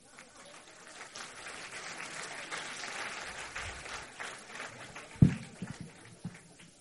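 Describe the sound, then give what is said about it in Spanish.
Audience applause: many hands clapping in a dense, steady patter that swells gradually over several seconds, with a sharper burst of louder claps near the end. “Fuerte aplauso para los honestos.”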